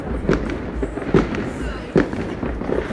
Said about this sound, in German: Also Hintergrund explodiert schon die ersten. Naja gut, die ersten würde ich jetzt mal nicht sagen, aber schon ein paar Feuerwerke.